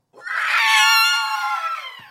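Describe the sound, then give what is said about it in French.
A single terrifying monster roar from a nightmare creature swollen to the size of a bouncing ball, a loud, shrill, screeching howl with a strained, harmonic tone that swells and then slowly fades over about two seconds, with no talking. “Oh non le mauvais rêve pousse un rugissement terrifiant.”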